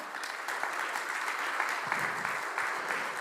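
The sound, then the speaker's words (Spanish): A church audience claps steadily in the morning, applauding the Lord, dense overlapping applause with a bright, crackling texture and no clear rhythm, holding at an even loudness throughout without any talking. “Dios le da un aplauso al Señor esta mañana.”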